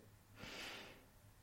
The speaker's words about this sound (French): Donc là, je vous inviterai à Inspirez, prendre une grande inspiration par le nez.